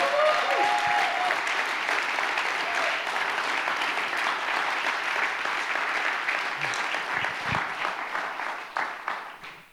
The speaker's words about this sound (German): Hey, lassen Sie mal einen riesen Applaus geben. Können wir das machen? Yes.